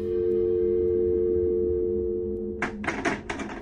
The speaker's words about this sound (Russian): Йонас повесил трубку. Гудки эхом отдавались в его голове.